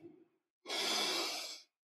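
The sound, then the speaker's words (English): A single deep, drawn-out inhale, steady for about a second, with a brief faint breathy sound before it and silence after. “Take a deep breath in,”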